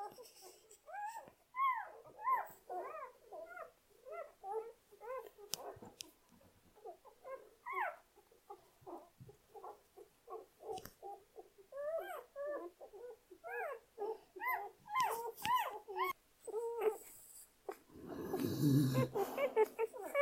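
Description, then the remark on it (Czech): Many small, high-pitched whimpers and squeaks from newborn puppies, overlapping in quick bursts, with soft suckling and rustling sounds as they nurse with their mother dog, Lira; no one speaks. “Nejdřív bych řekla, že Lirunka a všichni prdci se podle mě cítí super a pořád baští a Lira se od nich vzdálila jenom párkrát od té doby.”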